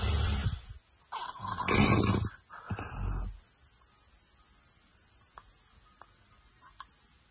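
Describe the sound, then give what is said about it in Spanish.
A man snores loudly and raggedly in a few heavy rasping bursts, then falls silent for several seconds as his breathing stops, leaving only faint ticking in the quiet. “si el ronquido es de terror, la apnea de … es de muerte. Escuchen cómo ronca”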